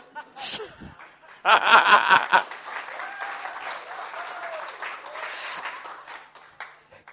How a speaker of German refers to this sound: Da kriege ich auf jeden Fall ein kleines Applaus.